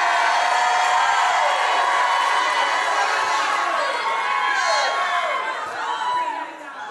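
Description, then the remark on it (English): A large crowd shouts and cheers loudly and continuously, many overlapping voices whooping and yelling together, filling the space before the roar eases slightly near the end. “Somebody start shouting, you're going to another level.”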